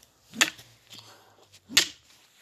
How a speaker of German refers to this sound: Er steht gerade mit einem Stock auf das Seil ein.